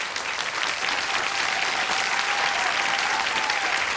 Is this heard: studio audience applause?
yes